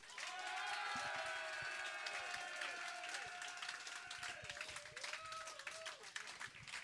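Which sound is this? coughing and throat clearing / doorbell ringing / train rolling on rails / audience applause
audience applause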